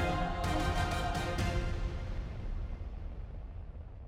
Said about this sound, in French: Et quelques dernières explosions de réservoirs ne perturbaient pas le calme revenu.